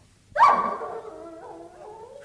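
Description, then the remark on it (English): A dog gives one sharp, loud bark that stretches into a wavering howl, trailing off into a drawn-out whine, with no one talking. “go and let that dog out.”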